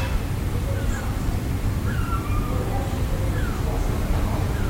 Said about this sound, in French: T'entends les mouettes